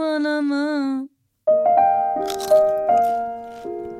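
A short musical jingle: a wavering sung tone, a brief pause, then sustained notes broken by a few crisp, loud crunches like bites into crunchy food.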